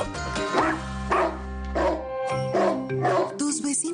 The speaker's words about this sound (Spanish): están hartos de escuchar que tu perro no para de ladrar y la convivencia está en riesgo?